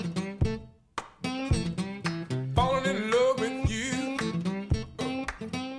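A blues tune led by a plucked acoustic guitar melody with sharp, rhythmic string attacks and a steady bass pulse, played up close and loud with no one talking.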